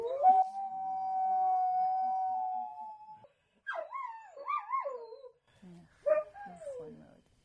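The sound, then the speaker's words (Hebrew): Jackals howl: one long, steady wail, then a pause before wavering, rising-and-falling cries, ending with a shorter sliding howl. No other sounds compete. “מילא התנים”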